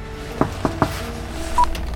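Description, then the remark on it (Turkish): A telephone receiver is set down with three quick, sharp clicks, a low hum lingering underneath and a brief electronic beep shortly after. “Telefonu kapatırken açıldı kapı.”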